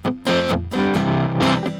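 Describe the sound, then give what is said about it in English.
An acoustic guitar played through an old pickup, strummed chords ringing out in a loose rhythm, with a slightly gritty, amplified tone and no voices. “The pickup's like an ancient pickup, and it sounds like this, even if it's an acoustic guitar.”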